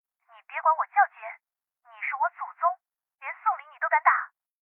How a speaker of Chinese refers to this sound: 王洛兜里的手机突然响了起来。